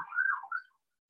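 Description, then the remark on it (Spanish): A faint ambulance siren passing by wails briefly, its tone rising and dipping for under a second before fading away; no one speaks. “Perdón por la ambulancia si se escucha que está pasando en este momento.”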